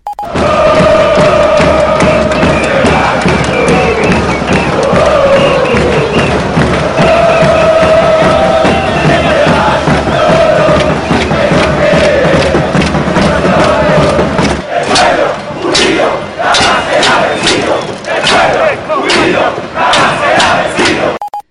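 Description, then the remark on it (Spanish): A large piquetero street protest crowd chants and shouts in unison, a loud, dense roar of voices with rising sustained tones, shifting midway into sharper rhythmic bursts and yells. “Las protestas piqueteras y de organizaciones civiles como las asambleas de vecinos se multiplicaban como los panes y los peces.”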